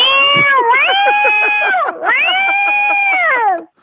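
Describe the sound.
A human voice imitates an excited cat, letting out two long, loud, wavering meows back to back, alone, with a brief dip between them before trailing off.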